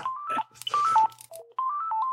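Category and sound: signal or alarm, mobile phone ringtone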